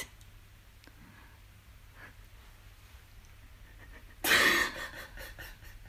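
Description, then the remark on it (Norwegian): A woman's quiet, faint breathing gives way to one sudden, loud, airy breath, a heavy pant that trails off into softer breaths. “Hun begynner å puste tung, men hun lar seg tung på hans.”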